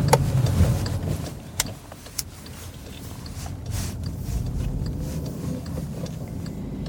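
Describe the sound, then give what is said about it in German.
Steady low rumble of a car cabin on the move during a drive to work, with road noise and engine drone filling the space, plus a few sharp clicks and knocks from inside the vehicle. “nehme ich euch heute wieder einmal auf eine Atmo-Fahrt im Auto mit”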